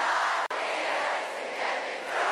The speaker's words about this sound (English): and of course, it featured that heartbreaking moment from Glastonbury as well. Listen to that crowd.